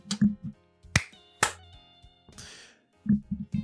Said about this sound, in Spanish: Un aplauso para mí.